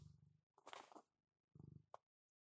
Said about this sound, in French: Vous entendez, ça ronronne sec.